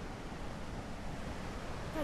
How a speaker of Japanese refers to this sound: 滝壺の方は見えてますね。あここの水量はすごいですね。またこの霧の奥の方にですね見えるこの滝がですねまた勢いがあって